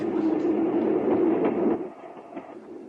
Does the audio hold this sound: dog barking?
no